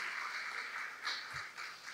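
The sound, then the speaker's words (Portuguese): A large crowd applauds steadily for the worship team for the whole moment, a dense, continuous wash of many hands clapping, fairly soft, with no one speaking over it. “Vamos dar uma salva de palmas aí, bem forte, por aquilo que Deus.”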